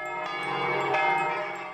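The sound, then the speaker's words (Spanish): A church bell rings loudly, its strokes overlapping into a continuous, resonant metallic clang with a long shimmering ring. No voices are heard. “De pronto, Justo a la medianoche, la campana en cuestión comenzó a tocar.”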